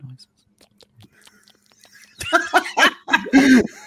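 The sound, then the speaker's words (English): Quiet mouth clicks and faint whispery noises for a couple of seconds, then louder breathy whispering and snickering laughter, a playful imitation of ASMR mouth noises. “I can do right. ASMR with y'all.”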